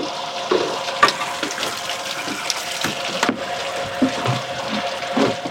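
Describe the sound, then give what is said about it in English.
Water pours steadily into a cistern tank as it is filled, a continuous rushing fill with gurgling and splashing, moderately loud, with a few sharp clanks and knocks along the way. No one speaks. “Zoel gets out and starts to fill it”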